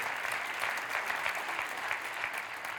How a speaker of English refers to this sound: Somebody give the Lord a clap offering today. Hallelujah.